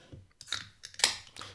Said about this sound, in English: Can you hear that? That's the sound of refreshment, me cracking open a Diet Coke.